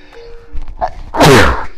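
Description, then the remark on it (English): A person imitates a sneeze with a quick vocal buildup, then one loud, breathy burst, which trails off over about half a second. “There was a student that I had that whenever he would sneeze, he'd yell, sneeze.”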